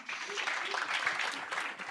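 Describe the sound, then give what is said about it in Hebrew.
An audience applauds to welcome a woman introduced as NextStage's head of business development and the talk's moderator, with dense, steady clapping that holds an even level for about two seconds, with a faint murmur of voices beneath it. “תנו לה כפיים והיא תנחה את השיחה”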